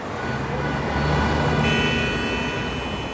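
Dense, steady traffic noise of a busy downtown street in São Paulo, with engines rumbling and a high whine or beep-like tone entering partway through. No one speaks.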